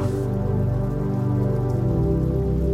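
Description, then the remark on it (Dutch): Steady rain patters against a window pane, a continuous tapping with no breaks, laid over a soft, sustained low drone. “En terwijl je hier comfortabel in je bed ligt, word jij je bewust van het geluid van regen tikkend tegen je raam.”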